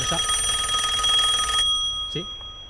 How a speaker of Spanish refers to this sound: Sí, tienes una llamada.